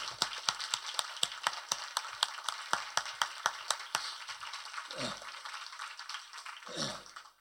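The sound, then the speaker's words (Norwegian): An audience at a political debate applauds the panel of party representatives with a steady run of sharp, evenly spaced claps over a dense crackle of hands, then the clapping thins out and a couple of short voices break through near the end. “Jeg synes Vi begynner med å gi dem en god applaus.”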